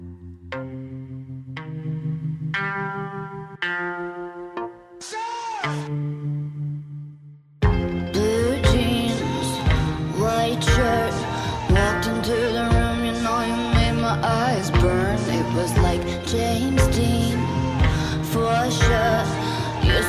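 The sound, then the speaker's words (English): A moody, edgy pop song plays. Sparse sustained chords open it before a full, loud band with steady drums kicks in about midway and carries on to the end. “Right now, we're going to listen to another song. Let's take a little edgy vibe.”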